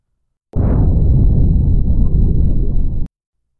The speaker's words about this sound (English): The explosion shuddered through the dome. It rattled my teeth. I felt like my eardrums would explode.